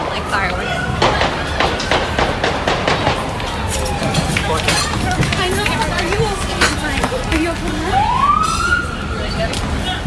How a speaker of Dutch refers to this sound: je hoort het duidelijk een aantal schoten. Eh, mensen rennen ook weg van de terrassen. Die zaten natuurlijk allemaal eh, buiten.